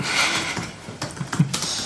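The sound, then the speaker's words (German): Quick, uneven clicks from someone typing on a computer keyboard, entering "Edgar Most" into a Wikipedia search, fairly quiet, with a few sharper keystrokes standing out near the end. No one speaks. “Möchtest du mal bei Wikipedia Edgar Most eingeben?”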